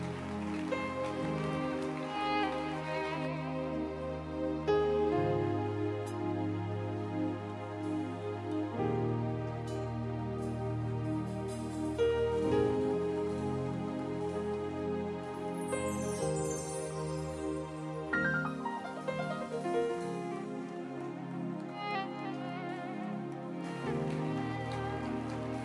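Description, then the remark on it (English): An audience claps their hands unto the Lord in a steady, dense patter, blended with loud sustained chords of accompanying music that shift throughout, with no voices speaking. “What a blessing clapping your hands unto the Lord.”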